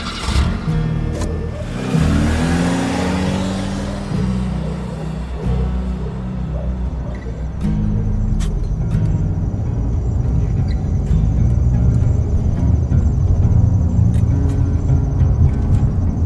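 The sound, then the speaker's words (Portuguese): A car engine turns over and catches, then revs up with rising harmonic tones before settling into a steady, loud rumble as the car accelerates. No one speaks. “Deu partida, pisei o acelerador.”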